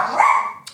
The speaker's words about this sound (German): das ist mein Hund, ähm, pst, oh